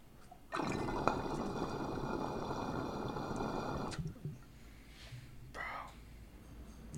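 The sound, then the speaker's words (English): A loud gurgling rush of water draining through a glass water pipe with a 19 mm uptake lasts about three and a half seconds, then cuts off, leaving faint bubbling and soft trickles. “she drains. Like the amount of water this thing moves, like this uptake, a normal honey jar uptake is like tw- like 12 to 16 mil, depending if it's like a 10 mil or a 14 mil.”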